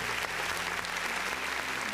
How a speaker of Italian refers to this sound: Chiunque abbia fatto questa cosa merita veramente un applauso e una stretta di faccia un applauso. Un'altra volta. Sì, un applauso.